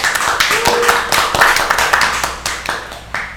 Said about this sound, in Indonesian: Tepuk tangan untuk ketiga orang narasumber.